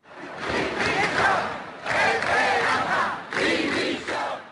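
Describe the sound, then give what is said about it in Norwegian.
A large protest crowd in Southern Europe shouts in the streets during an economic crisis, in three loud surging waves, many voices roaring together in rhythmic bursts with brief dips between them. “De siste to årene har millioner av mennesker skreket ut sine protester på gater og torg”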